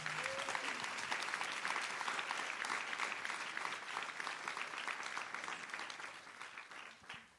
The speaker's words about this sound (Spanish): Dale un aplauso fuerte a esa sangre preciosa.